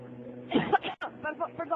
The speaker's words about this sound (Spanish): Uy, no, no fume. Está, es usted fumadora, se lo, digo. Esa tos es de fumadora, de tabaco, malo, ¿eh?